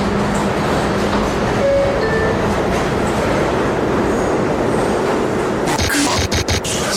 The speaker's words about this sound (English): This is a Queens-bound E train via the F line. The next stop is 42nd Street, Bryant Park.